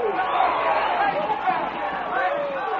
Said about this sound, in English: A crowd went wild as the racing horses vied with one another for first place.